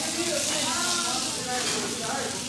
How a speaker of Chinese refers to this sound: 这是一盘什么肉啊？麻辣牛肉是吧？大家能听见吧？这滋滋啦啦的声音